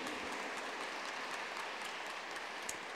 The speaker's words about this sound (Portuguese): Uma salva de palmas para ele. Seja bem-vindo.